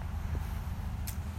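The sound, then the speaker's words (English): A steady, low rumble of cars passing on a road, heard while out on a walk, faint and continuous, with a brief hiss partway through and no voices. “Uh, maybe y'all can hear some of the cars going by”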